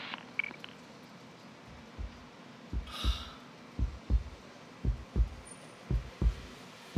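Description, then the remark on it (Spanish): A slow, steady heartbeat thumps in low, muffled double beats, lub-dub pairs repeating about once a second over a faint background hiss, with a brief higher whoosh around the middle. “¿Escuchan eso? Es el latir de un corazón destrozado, uno que va camino a encontrarse con la soledad.”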